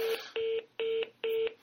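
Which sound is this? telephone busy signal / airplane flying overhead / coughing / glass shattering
telephone busy signal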